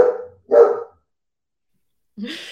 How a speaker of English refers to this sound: Those are our dogs. Dogs say hey.